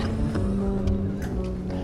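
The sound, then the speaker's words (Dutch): A steady low rumble and engine hum fill a car cabin while driving someone home, with a constant drone and a few faint clicks and rustles on top, and no one speaking. “Gewoon uitgezonden vanuit de auto.”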